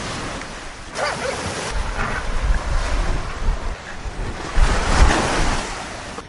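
Ocean surf washes onto rocks at low tide in continuous, rushing swells with a couple of louder surges, mixed with gusty wind rumble across the microphone; no one speaks.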